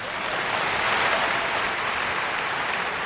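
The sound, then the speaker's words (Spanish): Steady audience applause for the winner of an entertainment and humor category at an awards announcement, a dense crackle of many hands clapping at once, sustained and fairly loud for the full three seconds with no voices over it. “Aplausos.”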